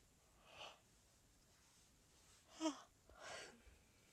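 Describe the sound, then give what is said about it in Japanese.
A quiet yawn from a person who has been drinking alcohol: a soft breathy intake, then a brief voiced, drawn-out groan and a long airy exhale, with no talking around it. “お酒入ってるからすごいあくびが出る眠い”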